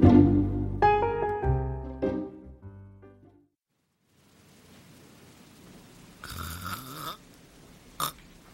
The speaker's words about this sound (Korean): 의사가 나가고 난 후 엄마의 모성애는 코 고는 소리로 바뀌었다.